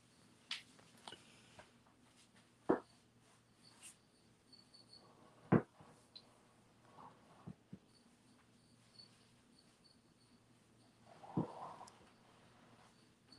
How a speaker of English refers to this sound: I was typing it and I don't like to type it and you hear tick, tick, tick